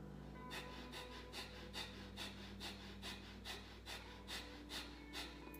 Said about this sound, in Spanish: Entonces, siéntate y respiración nada más por la nariz de esta forma.